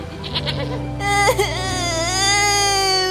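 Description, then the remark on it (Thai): A person and a goat cry together, a loud, sustained high-pitched wail with a wavering, bleating quiver that swells after a softer start and carries on unbroken to the end. “นั่นร้องทั้งคนทั้งแพะเลยทีนี้ โอ้ยข้าจะปลอบยังไงล่ะนี่”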